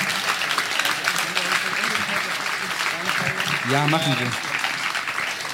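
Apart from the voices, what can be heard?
applause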